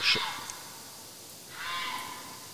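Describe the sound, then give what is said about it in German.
A fox screams twice, a short harsh shriek followed after a pause by a longer, raspy, high-pitched wail, heard alone without any talking. “Hier schreit jetzt offensichtlich ein Fuchs.”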